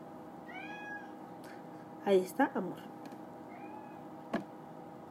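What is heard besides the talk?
cat meowing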